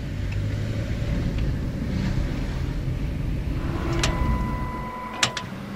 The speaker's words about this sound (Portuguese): A cancela da Lear abre-se mais uma vez para deixar passar o carro